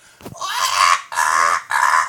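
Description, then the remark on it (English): A person imitates a parrot's screech, letting out three loud, harsh, raspy squawks in quick succession, with the first one drawn out longest. “But one of my ex stepdads, he had a parrot, and you know what else parrots do more than talk? They make this sound.”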